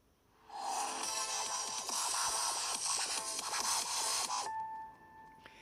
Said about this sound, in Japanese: で、これはどちらかというと細かすぎて伝わらないモノマネ風なんで、ちょっと登場曲をつけて、この効果音の一覧からやってみたいと思いますんで。